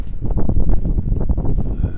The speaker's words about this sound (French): Il y a pas mal de vent, j'espère que ça impactera pas trop l'enregistrement.